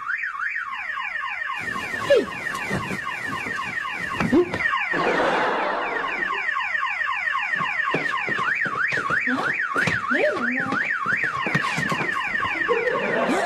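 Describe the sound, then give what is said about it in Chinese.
A car alarm blares at night without pause, cycling through its patterns: fast warbling sweeps, rapid up-and-down wails and pulsing tones, loud and continuous with no voices. “咱们家车那警报器响了”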